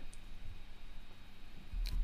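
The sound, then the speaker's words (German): Two faint, sharp mouse clicks, one near the start and one near the end, clicking to the next matchday of a football league table, separated by a quiet stretch of low background hum. No one speaks. “Hey, ja, ich muss auf nächster Spieltag klicken für die Rückrunde.”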